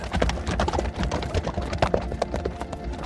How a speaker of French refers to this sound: Il traverse la plaine à toute allure sur son cheval.